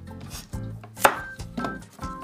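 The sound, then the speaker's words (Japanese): A knife cuts the stem end off a cucumber: one sharp, crisp chop against a cutting board, surrounded by a few softer knocks and rubbing sounds, with no talking. “まずヘタをちょっと落としてしまいましょうか。”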